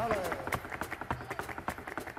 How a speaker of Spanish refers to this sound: Oye, bueno, no sé cómo escucha, estábamos oyendo un zapateo tuyo.